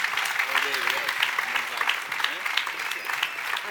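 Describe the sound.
Steady audience applause for the pendonista (banner bearer) of Santa Tecla fills the whole stretch, a dense, even patter of many hands clapping at a fairly loud level, with faint voices murmuring underneath.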